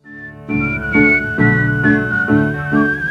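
A clear whistled melody carries the tune, shifting pitch from note to note over steady, rhythmic instrumental backing. The whistling sits bright and prominent, with no talking.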